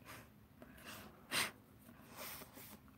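Nervous nose sniffling caused by a neurosis, not a cold: one sharp, loud sniff in the middle, with a few softer, shorter sniffs before and after it, and no talking.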